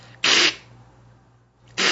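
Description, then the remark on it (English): A person imitates a cat's hiss with their voice, a sound used on a farm to train cats not to approach the farm's animals: two sharp, breathy bursts of hissing, the first about a quarter second long, the second cut off at the end, with quiet between them. “like a cat hissing.”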